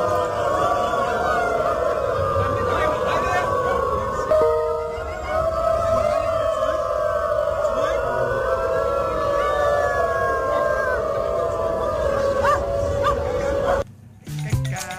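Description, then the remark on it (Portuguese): A crowd of protesters at a demonstration in Berlin howls like a pack of dogs as their chant, many long wavering cries overlapping into a loud, continuous chorus that swells and sustains before cutting off briefly near the end. “Um som das palavras de ordem desta manifestação de seres caninos em Berlim.”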